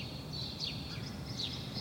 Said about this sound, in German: Wir hören da im Hintergrund ein paar Spatzen, Haussperlinge die chilpen. Das ist für die Gesang. Chilp, chilp, chilp. So macht der Mann, der Haussperlingsmann, wenn er vor dem Nistplatz sitzt. Der markiert und verteidigt damit sein äh, Eigentum dort.